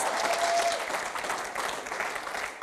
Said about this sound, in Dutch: Laten we Jezus zo'n groot applaus geven en voor jezelf, dat hij zo tegen je ziet.